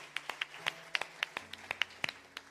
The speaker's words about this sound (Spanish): Los bendecimos. Un aplauso para todos ellos que están en sus casas.